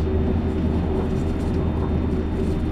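Steady, dense low rumble of the cabin of the limited express Azusa No. 30 running on the Shinonoi Line and Chuo East Line from Matsumoto to Okaya, Japan, a constant droning roar with a faint hum and no talking.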